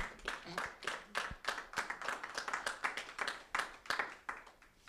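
An audience applauds for Jesus, a steady dense patter of many hands clapping with sharp irregular claps standing out, sustained at a moderate level for the whole stretch without pause.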